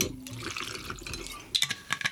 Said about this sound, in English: So, what I want to do is first add an ounce of watermelon vodka